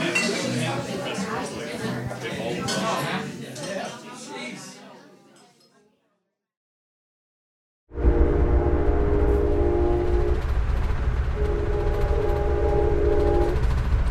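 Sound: train moving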